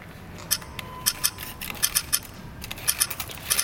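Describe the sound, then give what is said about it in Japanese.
A tape measure's blade is pulled out from its lower left and extended over one metre, in a series of quick metallic clicks and ratchety ticks, irregular, with no talking. “えー、テープをこの左下からこう出すと、ね、はい、はい、”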